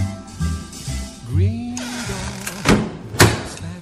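A door swings with a drawn-out creak, then shuts with two solid thuds over a low background hum.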